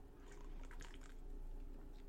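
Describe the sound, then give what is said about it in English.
Quiet, wet sipping of a Keweenaw Brewing Company Pickaxe Blonde beer, bought locally in the Upper Peninsula: a few soft slurping and swallowing sounds cluster in the first second, with a low steady hum underneath and no talking. “Got my beer and I'm ready to rock. Cheers to all of you.”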